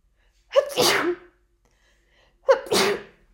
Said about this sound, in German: So, jetzt habe ich auch noch niesen müssen, warum auch immer. Es tut mir leid. Es ist ein Wahnsinn derzeit. Ich weiß nicht, ich glaube, die Pollen fliegen einfach schon wieder. Und ja, das macht mich irre.